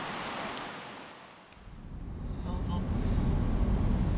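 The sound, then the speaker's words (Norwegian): Steady low road rumble and airy hiss inside a moving car, the deep droning noise growing heavier and louder partway through as the vehicle seems to pick up speed. “Men vi recorder i hvert fall fra bilen, og vi har vært nå innom to aid stations”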